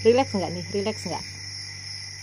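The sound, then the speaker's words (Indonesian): A steady, high-pitched chorus of crickets chirring continuously in a forest, with a person talking briefly over it at the start before the insects carry on alone. “aku cari suara-suara relax dan aku ingin berbagi suara itu suara jangkrik in the forest”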